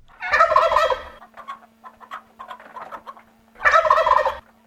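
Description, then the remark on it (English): A wild turkey gobbles twice, loud, with a burst of rapid rattling calls at the start and end and softer clucking and chattering in between. “Any farmyard turkey still gobbling on the day after Thanksgiving is a fortunate bird.”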